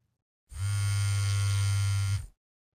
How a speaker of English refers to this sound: My phone started to buzz. The buzzing woke me up